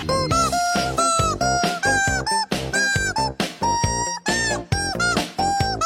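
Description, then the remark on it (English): A chicken squawks out a tune in loud, shrill, pitched notes, one squeaky note after another with brief breaks, rising and falling like a melody; no one speaks. “This chicken has good pitch, huh?”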